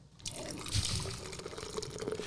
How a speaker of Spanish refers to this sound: es un desastre en ese estudio. Les pedimos perdón. no es fácil servir una lata de un litro en un vaso grande.